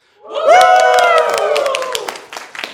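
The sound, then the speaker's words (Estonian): A live audience in the conference room of a Radisson Blu hotel erupts in loud cheering and whooping over a steady patter of clapping, swelling quickly and then tapering into scattered claps. “ja täna me oleme siis Radisson Blue hotelli konverentsiruumis ja meil on siin täiesti elav publik ja kohe vaatame, kui kõvasti nad elavad, nii et olge head, kõik tehke häält.”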